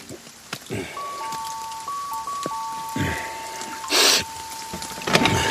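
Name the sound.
rain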